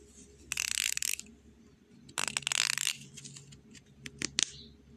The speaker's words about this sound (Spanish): Llegó a una casa abandonada y al entrar encontró una caja fuerte. El niño decidió probar combinaciones para abrirla.